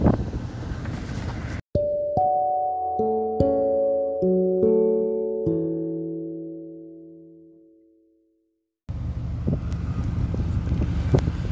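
Blustery seaside port ambience at the Paseo de las Olas in Coronel, with loud wind rumbling against the microphone, broken by a run of ringing, bell-like tones that slowly fade to silence before the windy harbor noise returns.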